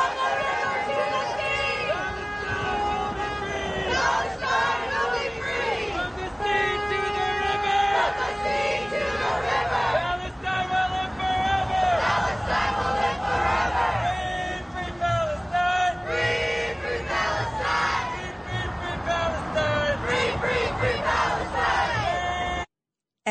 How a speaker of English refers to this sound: Take a listen. Here are some of the protesters just a little bit ago with their usual chants.